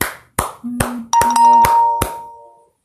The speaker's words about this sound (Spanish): Entonces, voy a dar un aplauso. Para hacer el doble de aplausos, y si quiero hacer el triple de, aplausos.